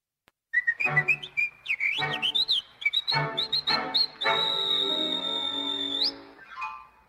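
A bright whistled melody of quick, bouncing notes over light accompaniment, ending on a long sustained whistled note that slides upward before fading.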